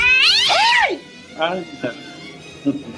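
A cat lets out one loud, drawn-out meow, then a few shorter, quieter meows and chirps follow at uneven intervals.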